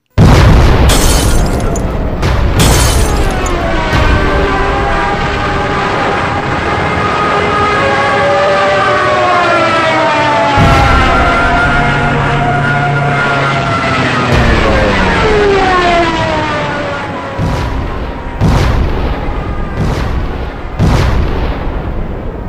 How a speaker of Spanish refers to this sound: Entonces la primera explosión estremece todo.